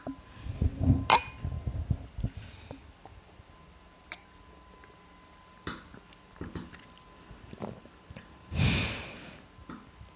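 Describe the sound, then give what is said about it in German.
After a toast, someone swallows a mouthful of beer with soft gulps, breathing out through the nose while swallowing in two sharp, breathy snorts, one early and one near the end, with small clicks in between and no talking. “Ähm, ist es ganz wichtig, dass wir quasi wirklich das Bier einmal in den Mundraum voll ausfüllend einnehmen und dann beim Runterschlucken durch die Nase wieder ausatmen.”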